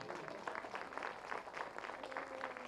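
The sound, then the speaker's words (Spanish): An audience breaks into sustained applause of praise, dense overlapping claps forming a steady crackling wash of sound with a faint tonal hum running underneath. “¿Cuánto da un aplauso de alabanza?”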